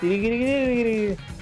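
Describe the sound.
A single voice hums one steady, slightly rising note for about a second, imitating the sound at the start of a video game intro, made by a glass bottle with a small stick inside, fairly loud, then stops abruptly.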